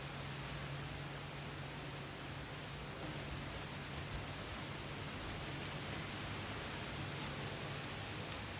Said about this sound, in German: Du spürst Regen überall auf deinem ganzen Körper.